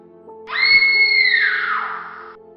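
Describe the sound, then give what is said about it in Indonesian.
A woman lets out a single long, loud scream of fear lasting nearly two seconds while running into a forest, high-pitched and sustained before trailing off, with a faint steady hum underneath. “Melihat hal itu, aku pun kembali berteriak ketakutan sambil berlari ke arah dalam hutan.”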